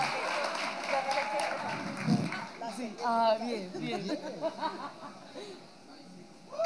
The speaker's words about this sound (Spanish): Pero, un aplauso para la mamá, por favor, también por bañarse en casa ajena.